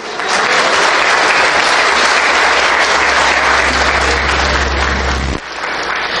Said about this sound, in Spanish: ¿Pueden darle ustedes un aplauso al Señor?